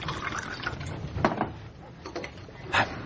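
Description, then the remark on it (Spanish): Whisky is poured into a cup in an office, a steady trickle with a few louder glugs and clinks along the way, a soft liquid sound with no one speaking. “Al echa whisky en una taza en su despacho.”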